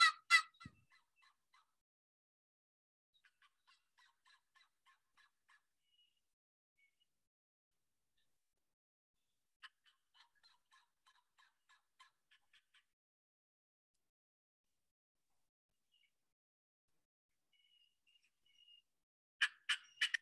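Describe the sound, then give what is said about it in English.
Loud, aggressive turkey calls from a caller burst out at the start and end on public ground, while fainter gobbling from wild hens answers off in the distance in between, in rattling runs separated by quiet stretches. No voices. “just listen to … hammering these turkeys”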